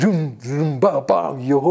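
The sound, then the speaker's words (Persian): A man's voice imitates daf (frame drum) beats with a few short, rhythmic sung syllables, loud, like a quick vocal drum pattern. “چهار نفری دف میزدن آقا همه برام بیزایی ویل کردن تاعت ول کردن همه این چی بود این صدا چیه”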